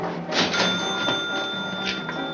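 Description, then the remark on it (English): A cash register bell rings with a bright, sustained metallic tone that lingers throughout, accompanied by a few clattering mechanical bursts, with no one speaking. “Every time you hear a bell rings, it means that some angel's just got his wings.”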